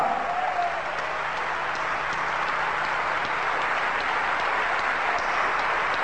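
Sustained applause from a large audience, a dense, steady wash of many hands clapping at even loudness throughout, with no voices standing out.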